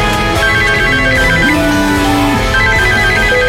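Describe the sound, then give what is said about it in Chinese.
A melodic phone ringtone of an incoming call plays on its own during the Traffic 91.8 radio surprise-call segment, a steady looping tune of bright, sustained tones with a few held notes, fairly loud and continuous throughout. “每晚六点，爱你的人会来电。”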